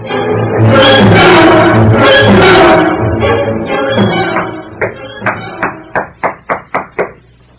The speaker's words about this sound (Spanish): Están llamando a la puerta